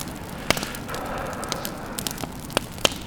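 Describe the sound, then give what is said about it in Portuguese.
A campfire crackles steadily in a small, dark cave, with a soft continuous hiss broken by several sharp, loud pops at irregular intervals. There is no talking. “Minha única companhia é a sombra agitada do meu corpo, que me hipnotiza quando fico de costas para a fogueira.”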